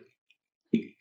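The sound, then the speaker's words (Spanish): Glasses knock together in a quick toast: one soft tap, then a fuller clink with a brief ringing tone, fairly quiet, with no voices. “No sé qué también está chocar vasos en, estas épocas.”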